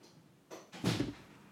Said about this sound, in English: I also want to shut this door back here